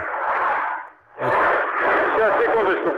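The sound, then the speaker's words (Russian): A loud, steady roar of airplanes flying over the MAKS air show, dipping briefly before surging back and holding strong, with indistinct voices faintly mixed into the noise. “на, на Максе, тут летают самолеты. Грохот”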